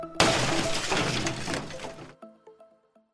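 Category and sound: sound effect, glass shattering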